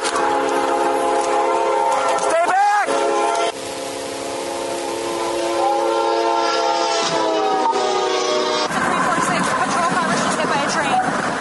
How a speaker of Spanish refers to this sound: La patrulla acaba de ser embestida por un tren. Estado de emergencia médica. La sospechosa estaba en el vehículo que fue embestido por el tren.